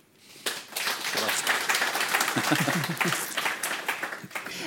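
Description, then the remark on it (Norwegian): An audience breaks into applause for a panel of guests at an event on digitalisation in Norwegian fish farming, many hands clapping densely and steadily for several seconds, with some voices mixed into the clapping. “Og da kan de tre, fire få en applaus.”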